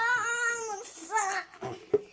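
A child wails in two drawn-out, high-pitched cries that slide downward, followed by a few short sobbing catches. Moderately loud, with no talking over it.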